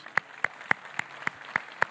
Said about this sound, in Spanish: Vamos a darle un aplauso a esos.